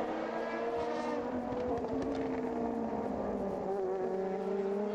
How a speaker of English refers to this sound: Still waiting for the last couple of cars to come across the line.